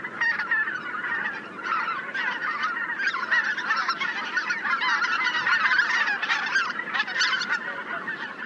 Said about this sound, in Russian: А вот это белолобый гусь.